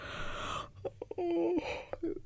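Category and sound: human body sound, yawn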